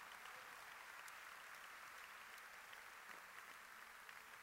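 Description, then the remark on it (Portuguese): Sustained applause from a large crowd at a morning worship service, given as applause for the Lord Jesus, dense and steady clapping for several seconds with no pauses, no voices standing out above it. “Dê um grande aplauso ao Senhor Jesus nessa manhã.”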